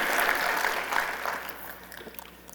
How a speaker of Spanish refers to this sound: Un aplauso al Señor que Él se lo merece.